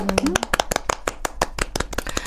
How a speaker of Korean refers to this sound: 11번을 야 대단하십니다. 박수 한번 보내드려야 되지 네. 않을까?